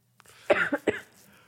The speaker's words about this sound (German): Also nicht schlimm, ich huste einfach mit.